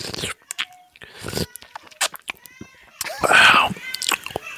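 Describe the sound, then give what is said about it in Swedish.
Wet, crunchy chewing of grapes, with irregular smacking bites and squelches that grow louder and juicier toward the end. “höjer sin mikrofon och smaskar lite grann.”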